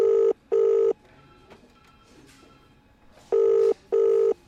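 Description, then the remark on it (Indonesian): A telephone rings back on an outgoing call: two pairs of steady electronic tone bursts, each pair close together, separated by a quiet gap with faint background noise. No one speaks. “Karena bingung, aku meneleponnya balik.”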